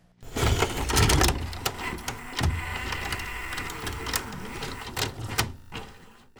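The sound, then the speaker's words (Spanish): A videocassette recorder's mechanism runs with a steady motorized whirr, punctuated by several sharp mechanical clicks and clunks as parts engage, with no voices present. “La era del videocassette está de vuelta.”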